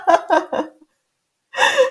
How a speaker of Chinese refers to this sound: 我今天跟你讲一下，你呼吸声超大的哦，我觉得我每一集都要讲一下